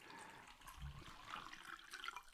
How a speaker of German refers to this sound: schenkt sie sich auch noch ein bisschen Wasser ein.